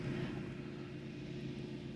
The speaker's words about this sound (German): Da kommt ein Motorboot.